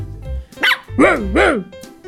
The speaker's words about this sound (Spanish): Ladró Rocco mucho más fuerte.